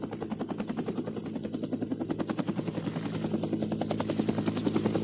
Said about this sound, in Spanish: Según la técnica de la preparación, debían de volar dos helicópteros. En el primero íbamos los que montaríamos el campamento para alojar a todo el grupo compuesto por 11 personas.